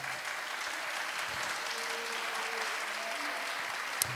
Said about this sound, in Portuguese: Bate palmas se vocês quiserem.